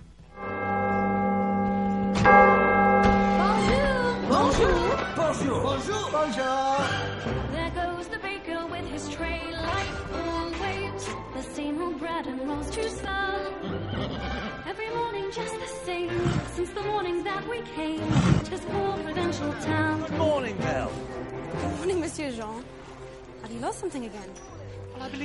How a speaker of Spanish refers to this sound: cantando una de las canciones clásicas de La Bella y la Bestia, que es eh, la intro.